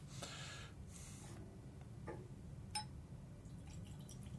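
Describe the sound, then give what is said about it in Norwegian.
The last of a bottle is poured out and shared between two glasses, with soft splashing and a few clinks and drips over a low background rumble, fairly quiet, with no one speaking. “Hell oppi du, og så gi et glass over.”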